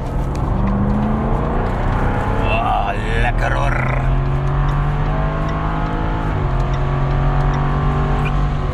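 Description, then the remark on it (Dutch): The powerful V8 engine of a Jaguar F-Type R sports car roars loudly and continuously during a road test, its deep rumble climbing in pitch as it revs and accelerates, with a brief spoken remark over the noise. “Het is inderdaad een 8-cilinder, een V8 om precies te zijn we hebben niet echt meer andere achtcilindervormen.”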